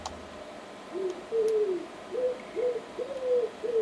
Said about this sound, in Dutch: Hey moet je luisteren. Het is een duif.